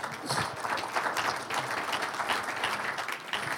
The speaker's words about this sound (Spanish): ¿Cuántos dicen un aplauso al Señor?